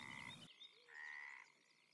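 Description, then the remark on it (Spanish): A frog croaks twice, fairly loud: a rough, buzzy first call followed after a short pause by a longer, smoother croak, with no voices. “Tiene que estarse en el agua con sus semejantes, Crua que te croa.”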